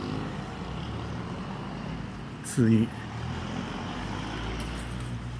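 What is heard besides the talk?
road traffic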